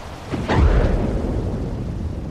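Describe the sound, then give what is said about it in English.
A single deep, rumbling cow belch bursts out loud, then trails off into a low, drawn-out grumble. No voices accompany it. “If you said a belch or burp, you're right.”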